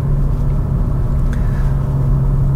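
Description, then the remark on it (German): A Hyundai i20N hot hatch drives in sport mode, its engine droning steadily from inside the cabin, a loud, continuous low hum with a deep rumble and road noise, no one speaking. “So, und ich bin jetzt im Sportmodus. Und wenn ich jetzt auf ein Kurvenschild zufahre, sollte er mir eigentlich anzeigen, bitte auf N-Modus umschalten.”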